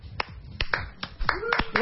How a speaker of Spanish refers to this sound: ¿Qué es ese aplauso?